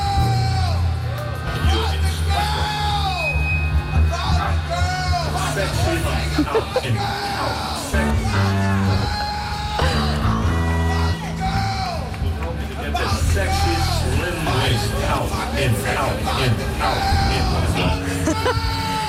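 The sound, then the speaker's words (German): Loud live concert audio with a crowd, where a fan's voice keeps shouting over the music, yelling a song request again and again amid cheering and whoops. “Ja, ich glaube, irgendwann hört man wirklich auf zu zählen, wie oft er wirklich reingeschrien hat”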